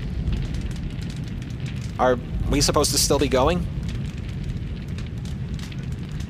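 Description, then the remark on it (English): A steady, rushing hiss fills the whole stretch like static or rain, with a low rumble underneath; a voice briefly speaks over it midway before the hiss carries on alone. “Uh, isn't this the part where we fade out with that hissing sound, whatever that is?”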